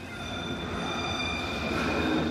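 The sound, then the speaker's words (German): A tram running underground as a subway through a city centre, a steady rumble of wheels on rails with high, sustained whining tones from the motors overhead, continuous throughout with no voices. “Die Straßenbahnen fahren im Zentrum als U-Bahn. Unter dem Marktplatz ist ein Bahnhof entstanden.”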